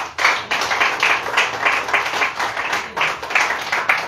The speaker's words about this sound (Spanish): Denle palmas a Jesucristo.